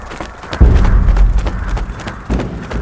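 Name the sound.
horses galloping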